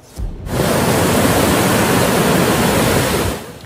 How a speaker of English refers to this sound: One river in an area near the border with Austria turned into a raging torrent, the flood sending a muddy cascade downhill.